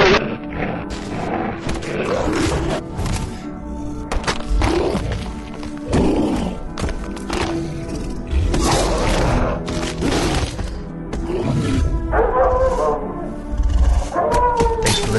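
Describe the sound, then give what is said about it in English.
A coyote lets out a run of yips and wavering howls, loud, rising into long sliding cries near the end against a busy, noisy background. “Did you hear that? What was it? A coyote.”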